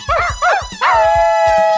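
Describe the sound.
A dog gives two quick rising yelps, then breaks into one long, steady howl that holds loud to the end, over a soft low rhythmic thumping.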